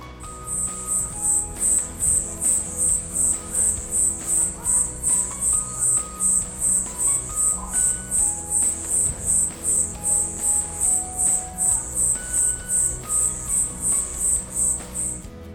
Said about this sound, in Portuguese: Eu fiz um teste. Ouçam a gravação deste grilo cantor aqui da minha rua.